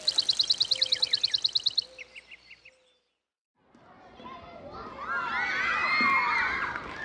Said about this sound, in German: Der Kindergarten liegt mitten im Park. Ein paar Kinder laufen kreischend über die Spielwiese, andere toben auf der Kletterburg herum.